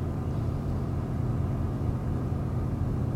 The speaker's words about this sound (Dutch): En ik zit trouwens in de auto